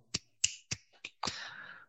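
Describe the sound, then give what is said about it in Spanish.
A series of sharp finger snaps in a loose rhythm, four crisp clicks followed by a fifth snap that rings out with a longer, hissy tail. No one speaks. “como que el ritmo de la batería y la base iba acompañado como si fuera por un chasquido de dedos, ¿viste?”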